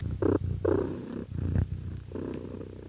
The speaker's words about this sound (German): Und ich mag, mag das Schnurren einer Katze sehr gern als Geräusch.